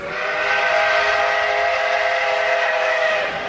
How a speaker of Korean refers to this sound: 어? 이, 이 소린? 기적 소리예요.